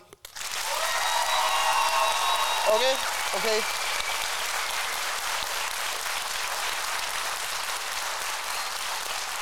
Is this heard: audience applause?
yes